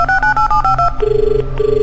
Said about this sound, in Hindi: इंदर ने उत्पल को फोन किया